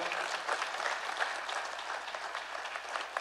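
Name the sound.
audience applauding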